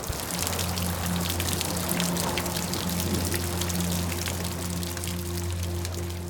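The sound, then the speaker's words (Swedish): Steady, dense rain pours down continuously, a broad hiss with scattered sharp droplet patters over a low sustained rumble, loud throughout with no voices. “Och när atmosfären sen var tillräckligt mättad med fukt började regna. Och det regnade och regnade och regnade.”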